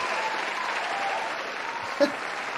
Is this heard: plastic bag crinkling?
no